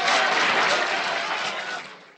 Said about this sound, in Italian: Bravo, bravo! 92 minuti di applausi!